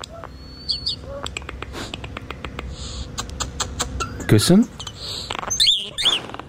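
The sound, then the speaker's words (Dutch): Starlings sing in a busy jumble of clicks, whistles, rapid rattles and squeaky mimicked notes, one almost like a human voice, while a person briefly speaks a word partway through. “zijn dus allemaal spreeuwen die we horen”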